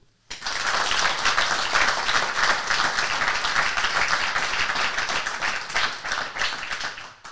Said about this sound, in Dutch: ik ging eigenlijk zeggen, als ze binnenkwam, mag ik jullie een applaus vragen voor eh, onze baas, tiran, leider, voorbeeld, vader, noem maar op